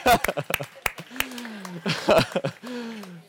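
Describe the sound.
A small group claps for a woman's imitation of the train announcement "please mind the gap", in brief, uneven bursts of sharp hand claps while people talk and laugh over them, the clapping thinning into a few scattered claps.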